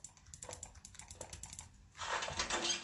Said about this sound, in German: Ich klicke schon mal meine Maus an. Hat nichts gebracht.